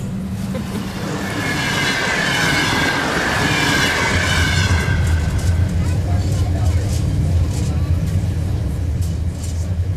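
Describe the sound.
A train rumbles steadily along railway tracks, a loud, continuous low roar with a thin metallic squeal rising and fading in the first few seconds; indistinct voices may sit faintly underneath.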